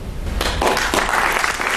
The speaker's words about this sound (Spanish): Y los aplausos, los aplausos del teatro español